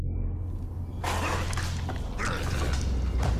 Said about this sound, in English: Zombies Volume 1 Window Breaker. Hey, straightforward. Tell me more about this. I'm not sure what it entails.